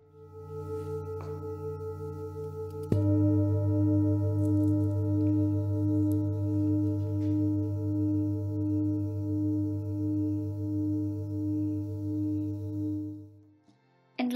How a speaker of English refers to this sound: This is the tuning fork. These are the singing bowls.